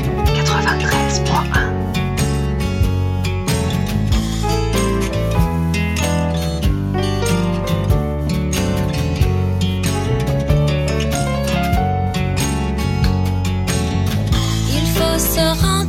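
A full-band song plays continuously at a steady, fairly loud level during a music break on Cause Commune radio, with dense layered instruments, a strong low end and a melodic voice-like line, without any talking over it.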